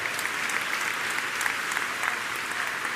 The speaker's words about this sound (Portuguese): dá uma salva de palmas ao Senhor, dá um grito aí de autoridade, declara vitória em nome de Jesus. Ei!